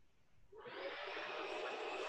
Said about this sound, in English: Really? My roommate's got a vacuum now?